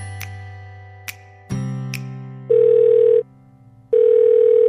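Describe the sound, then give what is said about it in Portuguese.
A few sharp clicks over a low electronic hum, then two loud, steady telephone call tones, each lasting under a second with a pause between, as a phone call to Léo fails to connect. No one speaks. “Caralho, não tô conseguindo ligar pro Léo.”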